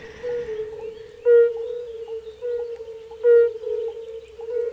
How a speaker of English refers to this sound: That is a bizarre sound. Uh, I can't decide whether I think that's a small frog or a big frog.